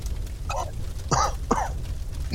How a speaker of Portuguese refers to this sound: Estão pegando fogo já é, muita coisa tá pegando fogo ao redor de vocês, tem muita fumaça, vocês começam até a tossir.